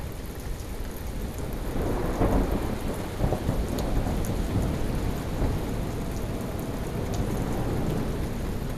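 A thunderstorm: steady rain hisses throughout while deep rumbling thunder swells and rolls beneath it, building around the middle and lingering as a low, continuous growl. No one speaks.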